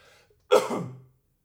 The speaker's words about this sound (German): Das war der erste Huster übrigens im Podcast.